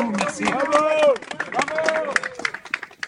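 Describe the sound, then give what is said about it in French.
A crowd in Montabon, Sarthe, France, claps and cheers for Stéphane Bern in early 2019 during the Gilets jaunes crisis, recorded by France Bleu Maine, with rapid applause running throughout and raised voices whooping and calling out over it, loudest in the first second and easing off slightly toward the end. “la scène que vous entendez a été enregistrée par France Bleu Maine à Montabon, dans la Sarthe, début 2019.”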